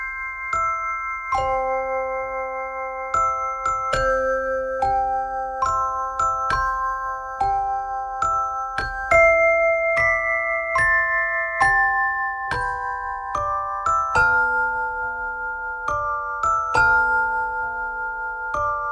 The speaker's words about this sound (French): Alors c'est parti, je vais pouvoir vous mettre une berceuse dans les oreilles et vous allez me dire vos, vos ressentis.